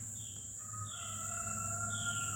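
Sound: rooster crowing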